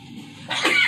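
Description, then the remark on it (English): A single short sneeze bursts out after a brief quiet moment, moderately loud, with a breathy, hissing release. “Bless you.”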